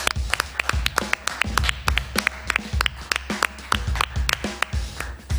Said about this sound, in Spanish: ¿Aplaudimos un minuto robamos un minuto de ahí? Dale.